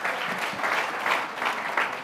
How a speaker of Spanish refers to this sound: ¿Están aquí todavía? Dame un aplauso al Señor entonces.